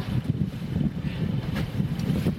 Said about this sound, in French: Les nuages, il y a des nuages, il y, a du, bah, il y a, un peu de vent. La mer est pas très calme.